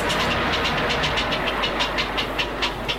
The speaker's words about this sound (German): Aber guter Mann, das waren noch keine Laufgeräusche. Das kommt von der Straße, das ist Verkehrslärm. Ich sagte doch, die Katalysatormikros sind hervorragend empfindlich.